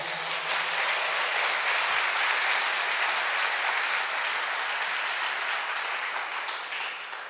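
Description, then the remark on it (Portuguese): An audience applauds the Lord in the morning, steadily for several seconds, a dense, even wash of clapping that holds at a strong level and eases slightly near the end, with no talking over it. “Aplauda o Senhor nessa manhã.”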